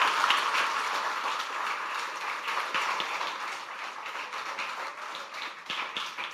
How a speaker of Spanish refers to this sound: Denle un fuerte aplauso al Rey de Gloria y Majestad.